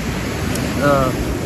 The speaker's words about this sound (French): si on entend trop le bruit des vagues, bien que ça soit assez relaxant.